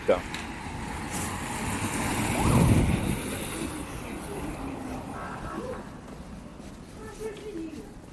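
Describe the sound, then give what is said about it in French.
Steady city traffic rumble on the roads of Moscow, a dense low roar of engines that swells briefly as a vehicle passes, with faint tonal engine whines drifting through the background. “Ambiance euh, sur les routes euh, moscovites.”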